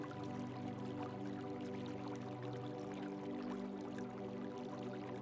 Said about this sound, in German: Du hörst ein Wasserspiel irgendwo in der Ferne. Du kannst nur noch gar nicht einordnen, von wo es herkommt.